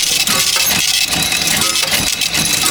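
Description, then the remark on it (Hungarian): A cash register sound effect: a dense, bright burst of metallic clinking and jingling coins that rings steadily for a few seconds, loud, with no talking over it. “Akkor pedig most csak ennyit a pénztárgépet.”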